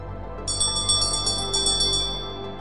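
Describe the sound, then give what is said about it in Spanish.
A small hand bell rings in a quick, steady series of about eight bright, tinkling strokes, clear, over a low steady background hum. “Mientras tanto, había hecho sonar la campanilla.”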